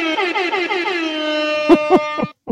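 A loud, brassy hip hop air horn blares in rapid repeated blasts, pitch wobbling, then a few sharp punctuating honks end the burst. No one speaks.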